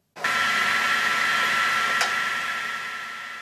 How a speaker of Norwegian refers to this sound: Dette er lyden av det som sannsynligvis er Europas eneste komplette gammeldagse avistrykkeri i full stand. Trykkeriet finner du sentralt plassert i pressemuseet Fjelljom ved Hitterelva på Røros.